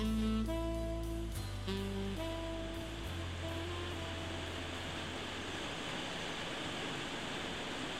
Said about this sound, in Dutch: gelukkig goot het toen niet zo zoals het eh, nu doet, beste luisteraars. Je hoort het waarschijnlijk wel op de achtergrond. De bekende stelen komen naar beneden.